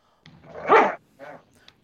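A dog barks: one loud, drawn-out bark, then a shorter, softer bark a moment later, with brief quiet between them.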